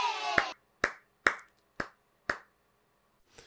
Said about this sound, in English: Congratulations, everybody. Let's give all the winners a round of applause.